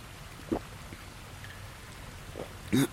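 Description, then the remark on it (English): Water trickles steadily in a cave while a few separate drips land with soft splashes, the last one louder. No one speaks. “if there's water running in here, then it's gotta go out somewhere”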